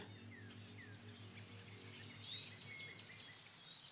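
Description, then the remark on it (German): Scattered high bird chirps and tweets in a forest on a mild late-summer day, rising and falling over a steady low humming drone, with no one speaking. “Vielleicht kannst du die Blätter rauschen hören, den Wind, vielleicht hörst du Vögel.”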